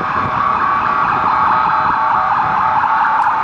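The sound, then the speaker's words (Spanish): An ambulance siren blares loudly as the ambulance passes, a steady, piercing wail that fills the whole moment, with a low rumble of traffic underneath and no one speaking. “Estamos esperando a que pase la puta ambulancia.”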